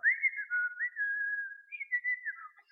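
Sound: person whistling a tune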